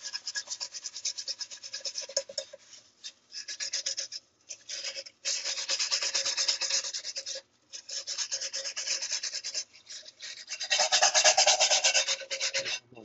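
Steady rasping scrubbing of soot, left from heating it directly over a wood fire, off a metal camping pot, repeated back-and-forth strokes in bursts with brief pauses, growing louder and coarser near the end. No one speaks.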